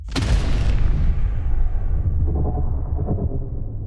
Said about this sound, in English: The various people in the silence in the courtyard stop and stare with dread up at the sky as the light sphere collapses. This is then suddenly followed by a loud boom.